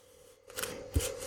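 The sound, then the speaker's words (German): Masking tape peeled away in a raspy, crackling strip, starting quietly and building, with a sharp snap as it releases near the end; no voices. “Einfach das Crepe hochziehen und dann einfach abziehen.”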